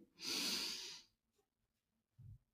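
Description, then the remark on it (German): An airy inhale through the nose, with the jaw slightly open and the tongue at the base of the lower teeth, lasts about a second with a loud, breathy hiss. Near-silence follows, then a brief, low, soft puff as air is snorted out through the nose. “Also, ihr schaut, dass der Kiefer leicht geöffnet ist, die Zunge ist äh, am Ansatz der unteren Zähne und ihr atmet durch die Nase ein”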